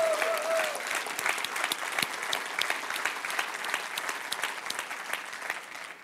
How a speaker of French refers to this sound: Et est-ce que Laval, on peut manifester notre excitation par une main d'applaudissement pour l'Église de Terrebonne?